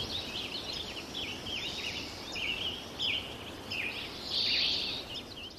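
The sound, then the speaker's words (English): Sparse spring birdsong recorded at Sugarloaf in 2009: a few scattered chirps and short whistled phrases over a steady hiss of background noise, with one slightly louder burst near the end. Faint, no voices. “Now we're coming up on 2009 spring's occurring two weeks earlier. Bird populations are beginning to thin out.”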